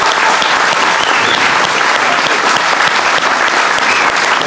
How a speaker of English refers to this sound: Well, ladies and gentlemen, that is all the time we have today here in the boiling hot marshmallow. Uh, um, please give me a massive round of applause on Red Hall Palace today.